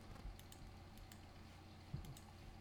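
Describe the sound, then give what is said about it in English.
Soft, scattered clicks of a computer keyboard and mouse, irregular, with a few sharper taps standing out over a low steady background hum, as someone browses the Issy website. “what clicking is... his ass away. Yeah, I'm just looking through shit now, man. I'm on the Issy site.”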